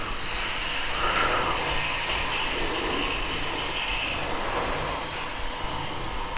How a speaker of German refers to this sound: Genau, jetzt also Wasserkocher an. So, jetzt kann der Wasserkocher in Ruhe kochen.